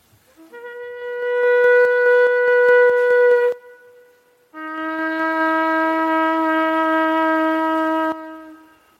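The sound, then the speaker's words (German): A shofar, a traditional Jewish horn instrument, blown in two long, loud blasts with a short pause between them; the second blast is pitched lower and sounds brassy and steady. No voices are heard. “Das zweite Symbol ist das Schofar ein traditionelles jüdisches Instrument, eine Trompete, welche in der Bibel meistens für die Verkündigung von Gottes Wort steht.”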